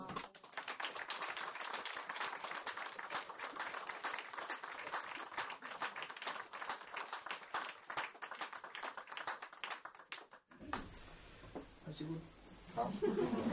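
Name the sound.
warm applause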